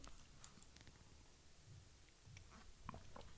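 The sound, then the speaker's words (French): A quiet sip of coffee: soft slurping and wet mouth noises, then a swallow and a small sharp click at the end, with no one talking. “petite gorgée de café.”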